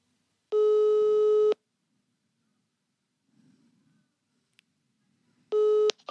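A telephone ringback tone while placing a phone call: a steady electronic beep lasting about a second, a long pause, then the tone starts again before being cut off by a sudden louder sound.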